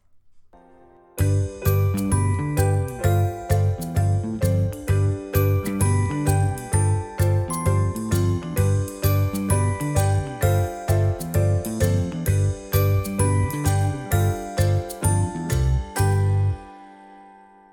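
An upbeat instrumental theme tune with bright, tinkling melodic notes over a steady, driving beat plays alone for about fifteen seconds, then stops and rings out briefly.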